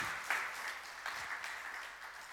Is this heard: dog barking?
no